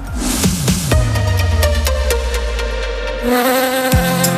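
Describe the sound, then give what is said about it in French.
A bee buzzes steadily, its drone wavering in pitch and dipping lower as it moves, continuous throughout with no voices. “Un insecte Non, un pollinisateur. Ce sont des insectes très utiles. En butinant, les abeilles permettent aux fleurs de se transformer en fruits.”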